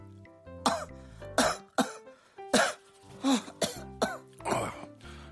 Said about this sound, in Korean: 아, 여보. 괜찮아? 아왜 이렇게 기침을 해? 아우, 몰라. 나 감기인가 봐.